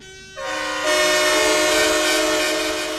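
Protesting firefighters blare horns and sirens, stopping a minister's speech. Several loud, sustained, steady tones stack up within the first second and then hold together in one continuous, overlapping din, with no talking.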